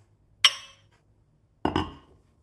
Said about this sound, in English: Why, why, why, are we clinking though? At the start of the pod, what are you drinking? And then cheers.